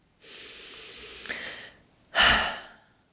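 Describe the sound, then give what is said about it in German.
A slow, deep breath drawn in for nearly two seconds, followed by a louder, forceful exhale, taken as a guided deep-breathing exercise with a hand on the heart; no talking. “Und vielleicht magst du dir zuallererst die Hand auf dein Herz legen und mit mir tief atmen.”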